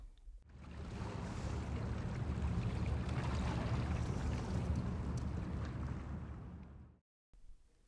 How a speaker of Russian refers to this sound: Итак, когда я записывал этот звук, я думал, ну, рассказать, что Рейн, и, собственно, ну, типа Рейн, Германия, вот эта самая большая река и все такое